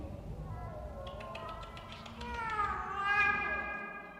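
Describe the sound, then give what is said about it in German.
A cat lets out a long, drawn-out meow that swells in the middle and trails off, preceded by a few faint light taps against a low background rumble. “Komm mal zu Frauchen du Katze, Katze?”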